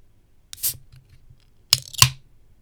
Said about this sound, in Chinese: 啊，这不是业配，我只是纯粹想要收音一下那个开罐的声音，因为很久没有收了。来喽，